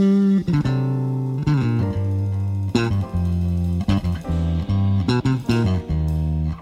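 An electric bass guitar plays a solo line of deep, ringing notes, each struck with a sharp attack and held, shifting in pitch with steady, moderate loudness and no voices.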